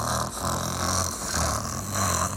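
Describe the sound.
A person imitates a sleeping lion's snoring: loud, raspy, rumbling breaths in a steady drone, with brief dips between three or so long snores and no other talking.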